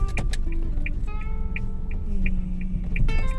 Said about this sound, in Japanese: えー、っとねピーピーガーガーうるさいかと思いますけれども今ねえー、っと車の車を走らせてこれから家に帰るところです